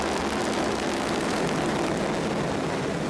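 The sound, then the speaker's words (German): A steady, thundering roar from an Ariane 5 rocket lifting off from the launch pad, carrying the Juice probe toward Jupiter, broad and rumbling with a crackling hiss on top, holding at full strength throughout without any voices. “Da donnert Juice Richtung Jupiter, beziehungsweise erstmal Richtung dieses interplanetaren Billardspiels.”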